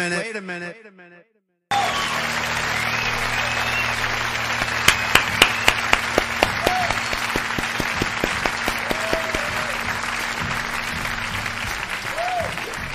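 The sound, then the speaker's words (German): A voice speaks briefly, then after a short pause a large crowd breaks into sustained, dense applause, with sharper individual claps popping out, continuing steadily to the end. “Da schließen wir uns doch gerne mit dem Applaus an.”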